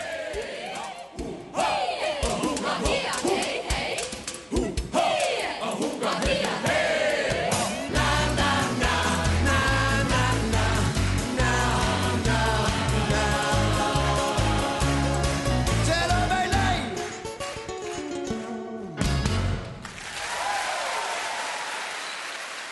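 A Norwegian pop song plays loudly with a steady driving beat, bass and sustained melodic lines. Near the end it briefly drops out, then returns as a softer, thinner passage.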